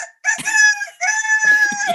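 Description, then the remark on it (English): A woman imitates a rooster crowing: two loud, drawn-out cock-a-doodle-doo calls in quick succession, separated by a brief pause, with no talking. “… just ran up uh, to do the rooster impression and then vanished again”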